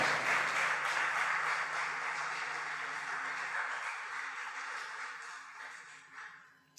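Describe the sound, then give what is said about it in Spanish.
An audience bursts into sustained applause for the King (Christ) during a sermon, a dense wash of many hands clapping that holds steady for several seconds before tapering off toward the end, with no voices over it. “Dale fuerte el aplauso al Rey.”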